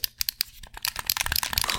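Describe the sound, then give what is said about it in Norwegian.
Crisp plastic button clicks from a Nacon Revolution Unlimited game controller, a wired and wireless PlayStation 4 and PC controller: a few spaced taps at first, then a rapid, dense flurry of clicking, with no one talking. “Det var da man merker at disse knappene har klikk-respons.”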